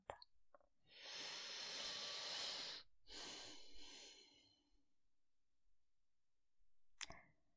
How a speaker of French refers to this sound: Alors, comme d'habitude, on va prendre le temps de se poser, de prendre une respiration consciente.